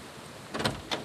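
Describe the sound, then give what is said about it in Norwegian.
A doorbell at a small white stone church is pressed, giving two short, raspy buzzing bursts, the first longer and the second brief, against a quiet outdoor background. “Her er døra. Vi går bort og ringer på her, vi.”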